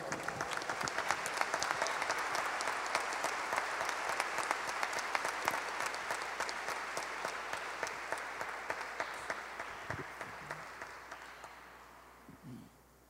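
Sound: audience applauding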